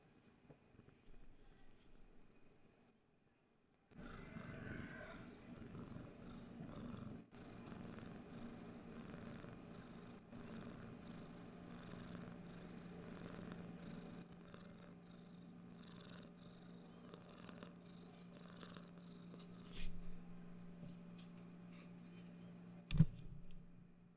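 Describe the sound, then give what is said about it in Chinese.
A cat named Lin Xiaomo, being held, purrs steadily in a low, rumbling drone that starts after a few seconds of near silence and continues without pause, with a couple of brief soft knocks near the end. “诶，各位有听到林小莫的呼噜声吗？”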